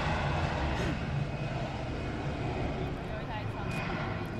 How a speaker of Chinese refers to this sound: 长龙的飞机正在起飞，不知道前往哪里。